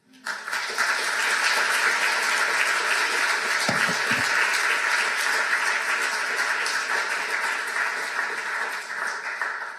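A crowd breaks into sustained applause, a dense, steady wash of many hands clapping at once that holds at full strength for several seconds before easing slightly at the end.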